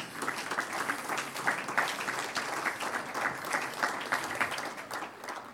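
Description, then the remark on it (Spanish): An audience claps steadily for several seconds in applause for their wives: a dense, even patter of many hands at moderate volume, with no voices rising above it. “Un aplauso a nuestras esposas.”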